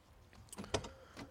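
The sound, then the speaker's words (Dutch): Someone gets into a car on the Hondsrug in Groningen: a quick, faint cluster of clicks, knocks and rustling, like a door handle and seat movement, over quiet background hiss. “Nou, daarvoor eh, stappen we in de auto.”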